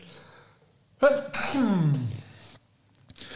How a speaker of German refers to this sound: Entschuldigung, ich muss niesen.